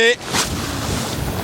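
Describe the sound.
Waves breaking in the surf on the coast of Rügen in stormy weather, where someone is wade fishing for sea trout, make a steady roar of rushing water, with wind buffeting the microphone and a brief voice fragment at the very start.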